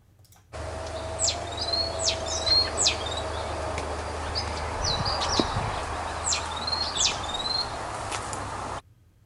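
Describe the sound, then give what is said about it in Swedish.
A great tit, recorded in mid-May, sings in bright, repeated two-note phrases, delivered in short bursts with brief pauses, over a steady low hum and faint insect-like background buzz. “Det var ju bara en talgoxe.”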